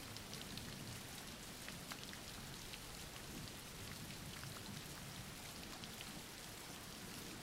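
rain falling

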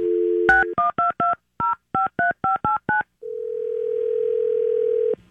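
telephone dialing tones

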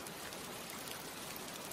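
rain falling

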